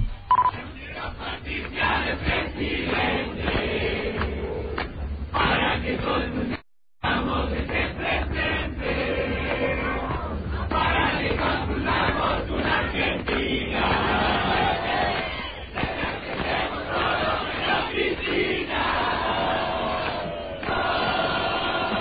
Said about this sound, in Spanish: se difundió un audio de una fiestita donde había jóvenes eh, bullrichistas cantando que... Eh, ellos, quieren que, Patricia sea presidenta para que haya una Argentina con todos menos con Cristina.